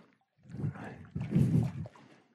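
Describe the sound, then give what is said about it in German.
Seawater is poured into a small basin holding three litres of water in two splashy, gurgling pours, the second fuller and louder, with a brief pause between them and no talking over the sound. “Ich habe ein bisschen äh, Meerwasser mitgebracht.”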